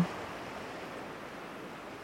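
A steady, soft wash of surf, like ocean waves rolling onto a beach, holding an even hiss throughout with no distinct individual wave crashes and no voices.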